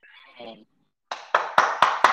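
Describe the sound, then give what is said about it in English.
After a brief voice fragment, a single person claps their hands five times in a steady, evenly spaced rhythm, loud, applauding their own remark. “Sorry, I had to clap that up for myself.”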